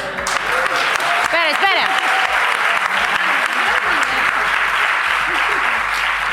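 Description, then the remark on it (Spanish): Loud, sustained applause from a large crowd fills the whole stretch, dense and steady, with a few raised voices and cheers briefly rising above the clapping early on. “Pero ¿qué ahora quiere que le aplaudan a ella, entiendes?”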